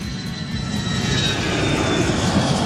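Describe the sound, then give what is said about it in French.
An airplane engine roars steadily, a dense, loud rumble with a high whine on top, building slightly as the aircraft powers up for takeoff. “montez dans l'avion du réveil de l'Ouest, décollage éminent”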